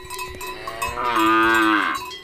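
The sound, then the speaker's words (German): A cow gives a long, loud moo, rising and holding before fading, while cowbells clank steadily in the background throughout, at an alpine pasture. “Aber es ist schon noch so, dass das ein Ort ist, der vor allem den Kühen und nicht den Menschen vorbehalten ist.”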